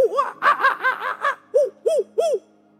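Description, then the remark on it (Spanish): A voice imitates monkey hooting: a quick run of about seven rising-falling hoots, then three louder, more separated calls, each arching up and down in pitch. “¿Cómo hacen los monos? ¿Alguien sabe cómo hacen los monos?”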